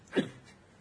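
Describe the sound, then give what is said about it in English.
A person's single short, muffled sneeze, stifled and turned away from the microphone so it comes out as a soft, breathy burst, followed by quiet room tone. “I do not want to sneeze into the mm-hmm. mic, so I uh, I cleared my I cleared my ears out with that one.”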